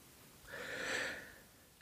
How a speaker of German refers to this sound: … atmet tief ein.